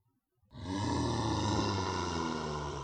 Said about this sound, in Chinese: 突然，年兽吼叫一声